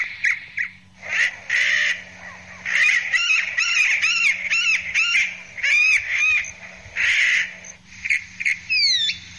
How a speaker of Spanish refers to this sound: Y esta es la calandria. ¿Qué les parece la calandria?